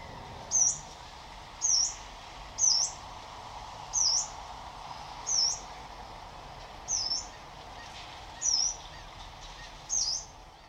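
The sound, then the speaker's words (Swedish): A yellow-browed warbler in autumn in a lighthouse garden gives a series of about eight sharp, high, upslurred calls, spaced roughly one to one and a half seconds apart, clear over a faint, steady outdoor background. “Det sista jag har att spela upp för er är en av höstens få taigasångare.”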